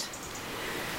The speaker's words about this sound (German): und der Regen, der auf das Moos tropft und der auf die Blätter tropft. Und das Rauschen ist aber der Wind in den Baumkronen.